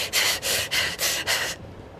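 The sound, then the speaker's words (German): Rapid, hectic breathing hissed through clenched teeth by a person leaning over someone and breathing into their face: five quick, sharp bursts of air in a steady rhythm, fairly loud, then the breath stops, leaving quiet background. “Die Person atmet durch ihre Zähne und das sehr aufgeregt und eilig”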